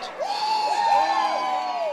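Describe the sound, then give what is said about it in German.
A crowd of actors and actresses cheers loudly after their film-industry strike is officially declared over, with many overlapping high-pitched shouts and whoops rising and falling in a steady, continuous roar. “Gestern gab es dann offensichtlich Grund zum Jubeln für die Schauspielerinnen und Schauspieler.”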